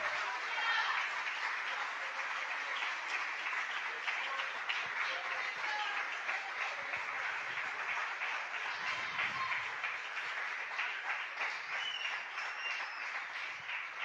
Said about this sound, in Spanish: Quiero que le demos un aplauso a ese Jesús maravilloso, por favor.